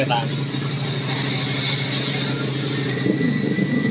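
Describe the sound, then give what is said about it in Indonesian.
Steady droning engine noise from motorbikes ridden around outside by local youths, a loud continuous rumble with a slight rise near the end, filling the whole stretch with no speech over it. “Ya ini ada jamet-jamet lagi main motor nih.”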